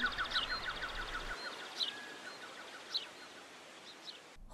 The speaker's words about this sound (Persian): باد توی شاخه ها میپیچه و برگای کوچیک که انگشتای شما باشه رو تکون میده چشماتون رو ببندین و صدای حرکت باد توی شاخه ها و برگا رو احساس کنین آ یه پرنده کوچولو هم اومد نشست رو شاخمون